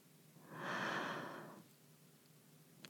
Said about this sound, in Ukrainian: Її дихання уповільнюється. Вдих